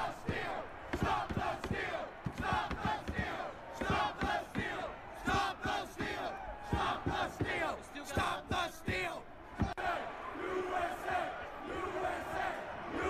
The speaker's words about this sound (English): A lot of USA chants.